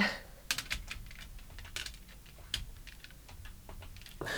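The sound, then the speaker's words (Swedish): Quick, irregular clicks of buttons being pressed on a phone keypad as a number abroad is dialed during a radio broadcast, fairly quiet, with no one talking. “Ska jag inte säga numret högt i, i radion heller kanske.”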